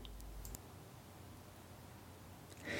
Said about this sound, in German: Ich höre ihn klicken, er spricht nicht mehr mit mir.